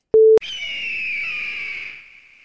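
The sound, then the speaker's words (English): A short electronic beep cuts off, then a loud, piercing stock Hollywood eagle screech rings out alone for about two seconds, holding steady before trailing off. “Hollywood Eagle.”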